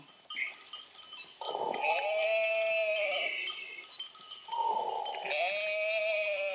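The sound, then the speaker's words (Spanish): Two long, wavering sheep bleats separated by a short pause, with a faint clinking bell in the background and no talking. “Por la tarde, cuando las ovejas habían comido bastante, las llevaba de regreso al redil para que durmieran tranquilas y sin peligro.”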